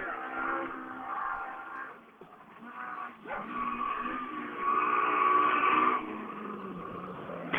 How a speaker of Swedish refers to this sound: Åh, oh, nu låter det bra här borta. En ilsken Opel Astra.